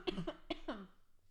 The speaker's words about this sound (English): Hang on, I need to cough.